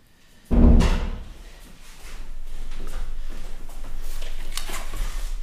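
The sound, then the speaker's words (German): A door is opened to let a dog in, with a sharp thud near the start, followed by a few seconds of rustling, shuffling movement and faint clatter. “musste dem Hund aufmachen.”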